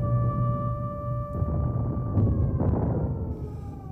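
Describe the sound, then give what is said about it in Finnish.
An air raid siren sounds again as bombs fall, holding a steady, droning wail that sags slightly in pitch toward the end, over a low, rumbling background with a few dull bursts of noise. “Ihmiset olivat juuri ehtineet palata koteihinsa, kun sirenit alkoivat taas soida ja pommit putoilla.”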